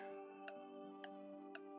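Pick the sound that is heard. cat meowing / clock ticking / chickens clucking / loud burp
clock ticking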